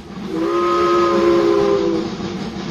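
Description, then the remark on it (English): A steam train whistle in northern Ontario blows one long, steady, fairly loud blast over a rumbling, hissing background of the rolling train, then cuts off while the low rumble continues. “The steam trains delivered food, medicine, and occasional news from the outside world to northern Ontario.”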